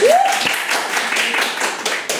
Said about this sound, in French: Hey, c'est qui qui aimerait ça manger plus de fruits et de légumes? Hey, par applaudissement, là.